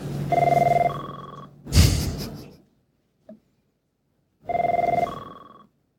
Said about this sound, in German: da ruft jemand an!